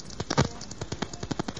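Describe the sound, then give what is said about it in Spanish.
A rapid string of sharp gunshot-like cracks from someone shooting out in the hills, roughly a dozen in under two seconds, firing in an uneven, stuttering rhythm like bursts of gunfire, with no voices. “si alguien está ahí disparando en medio del monte, ¿qué es lo que pasa?”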